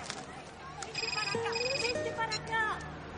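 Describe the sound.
A phone's electronic ringtone chirps in a repeating high-pitched pattern, moderately loud, with a voice speaking faintly underneath.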